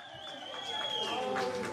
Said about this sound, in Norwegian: På flyplassen i Brisbane i Australia jubler familie, venner og kolleger av Al Jazeera-journalisten Peter Greste.